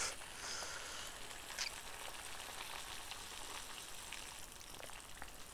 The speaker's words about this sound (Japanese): よしお湯を入れたお湯を入れました